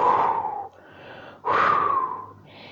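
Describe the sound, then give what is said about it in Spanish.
A voice imitates a very strong gust of wind at night with two long breathy whooshes, each swelling quickly and fading out, the second following after a short quieter pause. “Llegó la noche y sopló un ventarrón muy fuerte”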